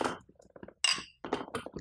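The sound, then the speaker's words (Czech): A single light clink of glasses touching in a toast with Normandy cider, brief and a bit muted, surrounded by soft clatter and handling noises of glassware being moved. “Ani to moc teda necinklo normálně.”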